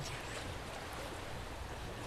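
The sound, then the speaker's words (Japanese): Gentle waves lap and wash against the wooden shrine buildings of Itsukushima Shrine in a steady, continuous churn of water, fairly soft, with no voices. “しかし社殿にぶつかる波の音は古来より変わることはありません。”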